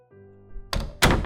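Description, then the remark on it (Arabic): A father shuts a door: it swings and shuts with a solid thunk, followed by a second sharper bang as it closes firmly, with a low hum underneath and no talking. “والدي قفل الباب”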